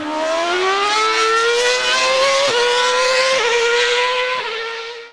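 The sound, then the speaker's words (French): A Formula 1 engine screams at high pitch, its tone rising steadily with a few brief dips as gears shift, loud for about five seconds before cutting off. No one speaks. “Pour plusieurs, la Formule 1, c'est le son bien distinctif des moteurs euh, qu'on entendait à la fin des années 90 puis au tournant des années 2000 quand on était jeune, qu'on l'écoutait à la télé.”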